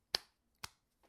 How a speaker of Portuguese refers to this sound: Isto é o barulho de eu meter a minha mão na garganta, tipo, pá! pá, estão a ver, tipo duas chapadas na garganta e aquilo entra.